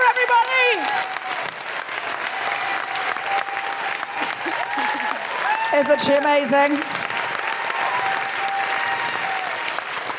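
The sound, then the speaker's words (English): A live audience in Stratford upon Avon applauds steadily throughout at the end of comedian Sophie Duker's set, a dense wash of clapping with some cheering, while a voice speaks over the noise near the end. “This is some strong work on the applause, Stratford upon Avon,”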